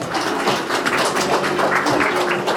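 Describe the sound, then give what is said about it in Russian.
An audience applauds steadily as the director of a Rostelecom branch is invited up to give a welcoming speech, many hands clapping in a dense, crackling wash at an even, fairly loud level throughout, with no one speaking over it. “Пожалуйста, ваши аплодисменты, Роман”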